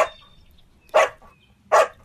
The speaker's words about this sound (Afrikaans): kom agter dis 'n speelietjie en blaf opgewonde.